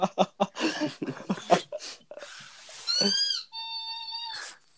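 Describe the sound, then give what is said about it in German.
A dog whines, starting with a series of short snuffly squeaks and huffs, then rising into a long, high, drawn-out squeaking whine before falling quiet. “Jetzt hör doch mal auf mit den Gesangsübungen. Komm, geh weg.”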